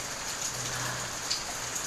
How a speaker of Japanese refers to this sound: なんかぼーっとこう雨見てるの飽きないですねあの河原から雨どいに水が流れていく感じとか見てて